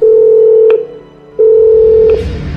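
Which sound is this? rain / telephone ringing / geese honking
telephone ringing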